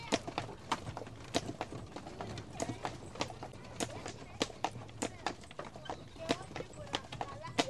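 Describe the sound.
Horse hooves clip-clop steadily on stone streets at night in an old city as horses pull carts that carry people, a brisk, irregular run of sharp knocks over a low rumbling background with faint voices murmuring.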